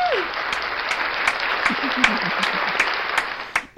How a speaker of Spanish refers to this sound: otro aplauso. A ver, échale.